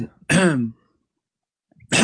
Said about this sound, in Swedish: Börja harkla dig nu.